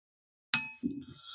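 A single bright bell strike rings out sharply, then decays with a lingering metallic shimmer as a low murmur of voices begins underneath.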